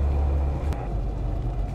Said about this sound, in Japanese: 帰宅途中のね車の中で、え収録の方をしておりますのでまたねあの後ろがすごい車の音が鳴ってると思いますがご了承ください。